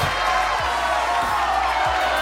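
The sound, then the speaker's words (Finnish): A dense, steady roar of recorded crowd cheering fills the whole two seconds at an even, fairly loud level, a continuous wash of voices with no single shout or clap standing out. “Ja yleisö mylvii Yleisö tästä.”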